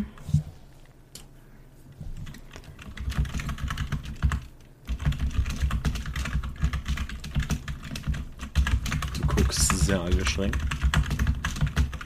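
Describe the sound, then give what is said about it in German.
Rapid, forceful keystrokes clatter on a computer keyboard, a dense run of sharp clicks growing louder and busier toward the end, with a faint low murmur beneath. “Aggressives Tippen ist da. Sehr überlegtes Tippen ist da.”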